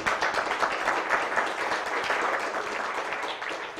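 A crowd applauds steadily, many hands clapping in a dense, continuous patter at a fairly even level for a few seconds, with no voices standing out.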